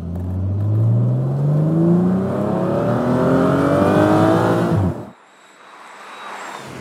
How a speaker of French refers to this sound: Allez, au volant de cette Morgane Plus 6, comme d'habitude, je vous fais profiter du son du moteur.